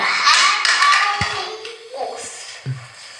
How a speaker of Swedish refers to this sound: ska se om vi kan lyssna på detta när han stylar min badrumshylla.